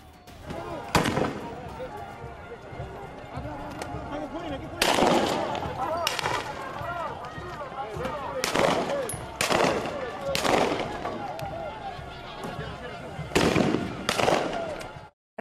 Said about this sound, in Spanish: gas lacrimógeno para dispersar a los manifestantes antigubernamentales que arrojaban piedras y encendían fuegos artificiales. Estos disturbios se producen luego de que el Congreso peruano rechazara adelantar las elecciones para el mes de octubre.